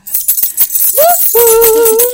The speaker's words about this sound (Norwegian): først så må du rasle med noen ja. nøkler her